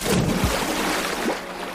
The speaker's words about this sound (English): Everybody watched nervously as Cranky turned his crane arm and gently lowered the whale into the water with a sploosh.